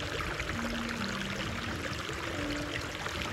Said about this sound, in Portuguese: Uma música bem suave se une ao som da água corrente. Inaugurada no século XIX, a casa de banho fica numa antiga mansão em estilo renascentista, com as paredes e o teto em mármore e afrescos pintados à mão.